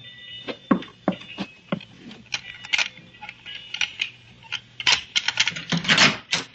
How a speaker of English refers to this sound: Where did you learn how to pick a lock?